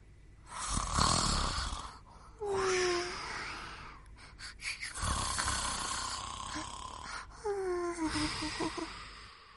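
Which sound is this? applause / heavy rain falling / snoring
snoring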